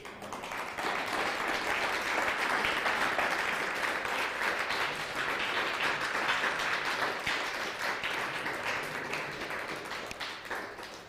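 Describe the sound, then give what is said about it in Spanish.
Loud, sustained applause from a crowd, a dense wash of many hands clapping at once that stays steady for about ten seconds before easing slightly, given as applause to God (the Eternal) during a religious sermon. “Fuerte aplauso al Eterno.”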